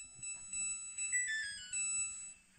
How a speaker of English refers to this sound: this washing machine is making a, melody, and uh, user her Hermestasis, Hermestasis a year ago is asking, can anyone help me transcribe the melody my washing machine makes? I want to troll my wife with it.